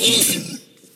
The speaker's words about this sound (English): Sorry. Bless you.